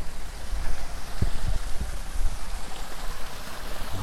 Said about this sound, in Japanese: ここに流れてる水はこれ天然の水なんでしょうかどこかに書いてあるのかなうんちょっとねどこにも書いてないですね